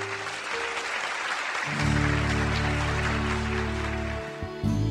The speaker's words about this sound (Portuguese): Nos abençoe, em nome de Jesus. Dê um aplauso a Jesus.